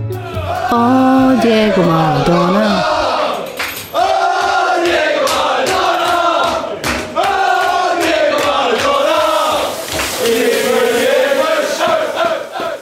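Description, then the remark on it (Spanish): A large crowd of football fans sings a rhythmic chant together, loud, with voices rising and falling in unison and sharp claps or shouts punctuating the melody. “Hay otros países en los que pasen cosas así, Escocia, Irlanda, de hecho está el cantito.”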